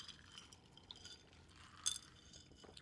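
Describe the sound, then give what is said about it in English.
Glasses clink together once in a toast, a single bright, ringing tap that stands out briefly against a quiet background of soft fizzing and liquid noise. “Cheers.”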